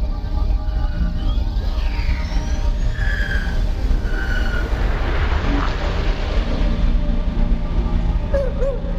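A spaceship engine starts up: a loud, deep, continuous rumbling roar with brief whining tones sweeping over it early on, holding steady throughout with no voices.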